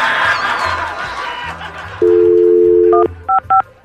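A steady telephone tone sounds for about a second, followed by three short dual-tone keypad beeps as a number is dialed, after a stretch of muffled chatter and laughter.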